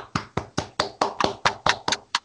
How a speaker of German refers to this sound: Einmal einen riesigen Applaus